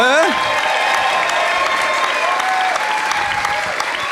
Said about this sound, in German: Begrüßt mit ihn mit einem tosenden, emotionalen, himmlischen Applaus den Andreas hier vorne auf der Bühne.